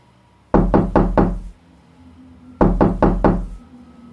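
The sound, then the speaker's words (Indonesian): Two quick sets of four firm knocks on a wooden door, separated by a brief pause, loud with no voices. “tak lama setelah itu muncul lagi suara ketukan pintu.”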